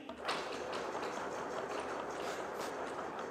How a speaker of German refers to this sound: Und ich möchte euch jetzt mal alle bitten, eure Hand zu nehmen und unter den Tisch zu halten und auf mein Zeichen zu klopfen. Ja, also alle die Hand unter den Tisch und auf mein Zeichen klopfen. Auf drei, eins, zwei, drei.